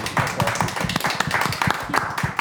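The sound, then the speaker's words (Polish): Audience applause: many hands clapping in a dense, steady patter of sharp slaps, loud and continuous from start to finish with no voices. “brawa.”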